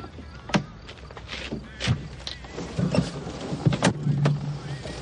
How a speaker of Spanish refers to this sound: Mari sube al coche y Julio le cierra la puerta caballeroso con gesto arrepentido. Luego da la vuelta y se monta en el asiento del conductor.